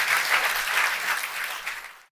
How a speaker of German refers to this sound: Ganz herzlichen Dank, dass du bei uns warst. Großer Applaus für dich.